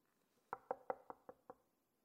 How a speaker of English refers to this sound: The midnight knock.